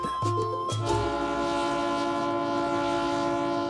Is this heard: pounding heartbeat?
no